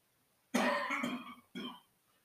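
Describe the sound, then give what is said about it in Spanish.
A loud cough with a raspy, throaty burst, followed a moment later by a second shorter cough, then silence. No talking. “por esta tos.”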